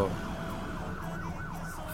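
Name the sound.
ambulance siren in traffic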